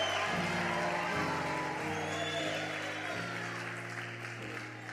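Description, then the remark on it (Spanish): An audience at a Tuesday-night church gathering claps loudly and steadily for about five seconds to make a noise to God, a dense continuous roar of applause over sustained low keyboard chords that shift every second or so. “Aleluya, aplauda fuertemente.”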